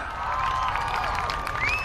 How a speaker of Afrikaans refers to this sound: Vrydag breek aan en die gehoor sit reg in die skoolsaal. Hulle wag vir die gordyn om oop te gaan. Toe dit gebeur, klap almal hande.